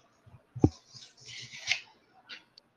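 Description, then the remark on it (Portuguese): Heavy, rasping breaths right up against a microphone, a few hissy exhales in an uneven rhythm with a soft thump near the start; fairly quiet, no talking. “Tem alguém que tá com uma respiração bem forte no microfone. Tá fazendo barulho.”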